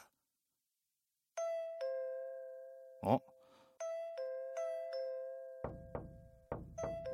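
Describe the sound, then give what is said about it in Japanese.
A doorbell chime is pressed by a woman again and again in quick, impatient succession, its bright tones overlapping, with a short vocal exclamation midway and dull thumps under the final rings. “このチャイムの押し方は”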